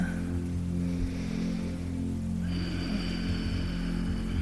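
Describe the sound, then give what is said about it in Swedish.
A cat purrs in a steady, low, continuous rumble with a soft pulsing texture that never lets up. There is no talking, just the quiet purr. “Och hör du lite ljud så är det katten som spinner.”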